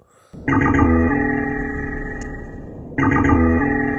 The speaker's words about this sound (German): Jetzt das hört sich doch genauso an. Also ein anderes, es ist zwar eine andere. Es Ist ein anderer Zwergwal, aber es ist auch ein Wal.